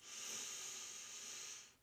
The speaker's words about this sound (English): All right, so we're going to do a nice big full breath into the top and bottom parts of our lungs, breathing in here now.